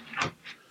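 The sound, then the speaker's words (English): A dog named Kaya at the door makes two brief, soft scratchy bursts a fraction of a second apart, faint, with no voices. “What's happening? That's a dog at the door.”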